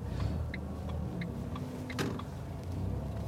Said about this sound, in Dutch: En uh, het verkeer staat vast hier, dat is mooi.